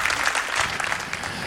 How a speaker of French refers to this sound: encore les applaudissements.